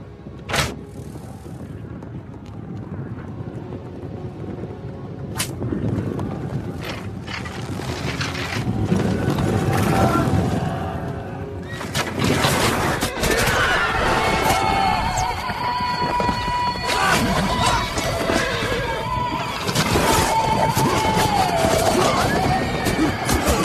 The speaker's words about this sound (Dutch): hier heel veel pijlen vliegen. Ja, je e- hoorde, eerst één pijl. Dat was eh, de marker, zal ik maar zeggen. Dat was om te kijken van hoe staat de wind, hoe ver komen we.